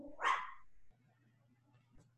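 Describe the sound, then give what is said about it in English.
A single sharp bark from an agitated dog from Poland near the start, followed by a low steady hum and near silence for the rest. “sorry, my dog is freaking out right now.”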